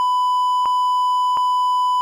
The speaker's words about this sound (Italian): Quindi adesso partono una raffica di bip.